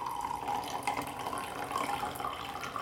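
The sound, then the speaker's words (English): Water pours steadily for a few seconds, a continuous splashing trickle with a slightly rising, filling tone and no one speaking. “Every time I do this and it makes that noise, I just think of the outtakes from Liar Liar when he's pouring water”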